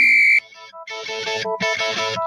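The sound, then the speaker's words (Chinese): A telephone busy signal: a loud, high electronic beep, then bright, buzzy phone tones pulsing in short bursts, with no voices. “怎么电话总是占线？”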